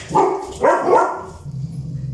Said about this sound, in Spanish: Le ladraba y le movía la cola. Saltaba al lado de su bicicleta. ¡Ey, ey, perro! ¿De dónde nos conocemos? Le ladraba jugando, no paraba de saltar. De repente corría y daba vueltas en círculo.